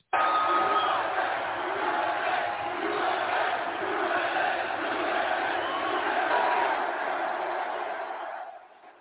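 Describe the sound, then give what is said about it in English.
A stadium crowd of more than 80,000 at a sporting event roars and cheers as TV cameras turn to Trump and Melania, one continuous, dense wall of voices, staying loud and steady for about eight seconds before quickly fading out. “And this was the response of this 80 plus thousand person crowd in the stadium.”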